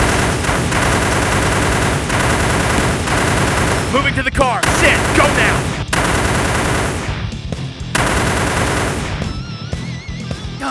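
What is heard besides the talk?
video game gunfire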